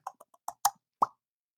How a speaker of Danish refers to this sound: Og jeg tænker, at øh, jeg ruller lidt den magiske terning her.